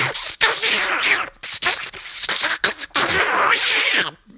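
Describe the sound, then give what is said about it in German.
A voice imitates an earwax suction device sucking earwax from an ear, with harsh, breathy hissing that comes in several fairly loud bursts separated by brief gaps, with no actual talking. “äh, ich sehe hier ähm, ein bisschen Ohrenschmalz ich, ich saug das mal weg.”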